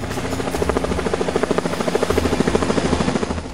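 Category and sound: vehicle, helicopter rotor flying overhead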